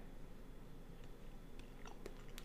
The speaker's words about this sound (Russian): Как можно реализовать прожевываемый в данный момент мной хлеб? Хм я жую хлеб, как я могу его реализовать? Я его могу пожевать на правой стороне.